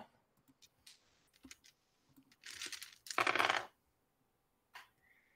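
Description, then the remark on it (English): Dice clatter and rattle across a hard table surface in a few quick bursts, with a louder tumbling roll near the middle and a final sharp click, with no voices; the roll comes up ten. “I got a ten um, on the dice.”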